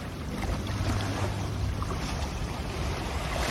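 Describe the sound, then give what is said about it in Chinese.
Waves washing steadily against a shore at high tide, a constant loud rush of water with a low rumbling undertone and no clear breaks between surges. No one speaks. Recorded at Tamsui, near the river mouth. “对，这就是涨潮的时候才有可能的，因为这个浪一直往岸边打，也就是它应该已经涨到一个程度了。”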